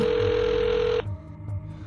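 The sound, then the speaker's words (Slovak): A phone line's ringing tone sounds once on a call to the police from a public telephone booth, a steady one-second beep heard through the receiver, then cuts to a quiet pause over low background hum. “Výjde von a potom z blízkej telefónnej búdky zavolá na 158.”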